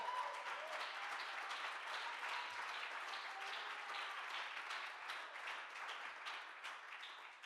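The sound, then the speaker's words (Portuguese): A church audience applauds for Jesus Christ during a sermon, many hands clapping in a dense, continuous patter that holds an even loudness for several seconds before tapering slightly at the end. “Dá-lhe um aplauso aí.”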